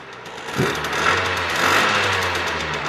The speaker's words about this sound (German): Nee, das ist ein Zweitakter. Würde ich auch gerade sagen. Das ist ein Zweitakter, würde ich mal tippen. Das ist eine äh, Schwalbe. Eine Schwalbe.